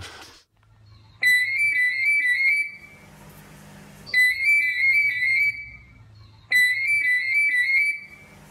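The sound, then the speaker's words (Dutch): A parrot mimics an old telephone ring: three bursts of warbling, trilling tones at a steady high pitch, each lasting about two seconds, separated by short pauses with a low hum beneath. “Het is een papegaai en blijkbaar de papegaai die ergens in de buurt van een oude telefoon heeft gezeten en dat imiteert”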